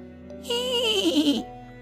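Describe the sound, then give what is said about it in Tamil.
A horse neighs loudly once, a strained whinny lasting about a second that slides downward in pitch, on its own with no talking. “அப்படின்னு பயங்கரமாக கணச்சுது”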